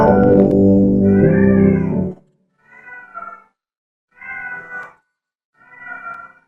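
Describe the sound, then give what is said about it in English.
A female pet cat meows repeatedly and insistently: one long, loud, drawn-out yowl followed by three shorter meows at regular intervals, with no one talking. “The cat's going off again, so the cat's going off, so I gotta do it.”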